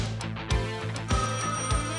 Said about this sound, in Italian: Prima di lasciare lo spogliatoio, qualcuno faceva squillare il telefono che c'era all'interno e solo Tata Brown poteva rispondere.